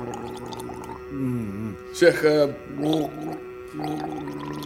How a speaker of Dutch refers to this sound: Een goede gorgel moet klinken als een aquarium dat leegloopt.